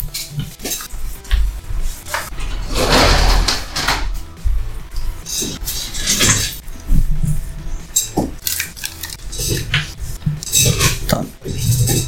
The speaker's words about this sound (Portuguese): que eu vou fechar essa porta, é, fechar essa janela, uhum.